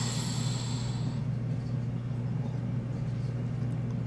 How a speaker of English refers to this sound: Oh, here's that fucking AC kicking back on. I'm sorry if you have to hear it.